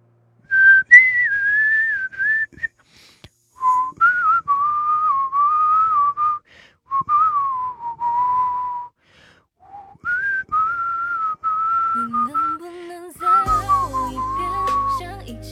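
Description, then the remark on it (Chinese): Someone whistles a meandering tune with their mouth, a clear, pure, high tone in several phrases broken by short pauses. Toward the end, a lower tone and a buzzy background sound join in. “除非是口哨啊。”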